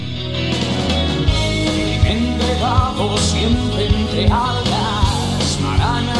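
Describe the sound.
A Spanish rock song plays loud and steady, with a male lead vocal singing over driving drums, bass and electric guitars throughout.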